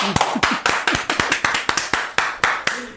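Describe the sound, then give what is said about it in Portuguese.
Steady, rhythmic hand clapping, about a dozen sharp claps at an even pace, fairly loud, with no voices over it. “Vamos aplaudir,”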